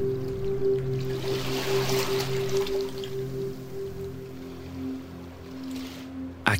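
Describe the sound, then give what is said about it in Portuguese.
Gentle waves wash and lap against rock cliff walls at a small, deserted beach early in the morning, heard from atop the rocks: a soft continuous swishing with brief surges, a low steady hum underneath and no voices. “Aqui, as ondas batem levemente contra os paredões, produzindo um som gostoso de escutar de cima das rochas.”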